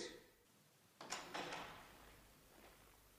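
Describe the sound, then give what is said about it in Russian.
A door is opened for a policeman with a short burst of clunks and a latch rattle, followed by a fainter knock a moment later. The sound is quiet, with no one speaking. “Откройте, пожалуйста, дверь, мадам.”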